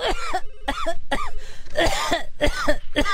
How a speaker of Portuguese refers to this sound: se você tossir de novo, você tá demitida, meu.